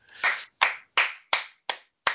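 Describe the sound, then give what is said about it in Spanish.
Six sharp hand claps in a steady rhythm that quickens slightly toward the end, each a crisp, bright slap with a short ringing tail, with no voices. “Raquel, te aplaudimos y queremos.”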